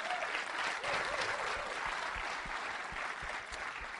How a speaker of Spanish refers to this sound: Así que dense un fuerte aplauso a todos ustedes. Los felicito.